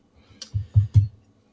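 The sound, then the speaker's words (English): Phone notification sounds from an Instagram group chat arrive in a quick burst: three short, low buzzy blips with faint clicks, moderately loud, with no talking. “is uh the group chat on Instagram.”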